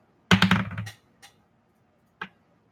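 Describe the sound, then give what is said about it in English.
A quick burst of hard clattering clicks as dice tumble across a desk, followed by two isolated taps as they settle. Fairly loud, with no talking. “She even comes with her own sound effects. That's because she's rolling on a desk.”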